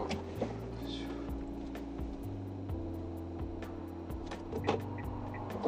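A steady low engine rumble of a car driving, heard from close by, with faint, regularly spaced clicks ticking over the hum throughout.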